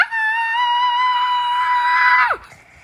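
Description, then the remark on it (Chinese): A voice imitates a child's loud, sustained scream: one steady, high-pitched shriek lasting about two seconds before it drops sharply in pitch and cuts off. “他吸吸鼻子，踢上踢下，蹦蹦蹦蹦，大声尖叫。”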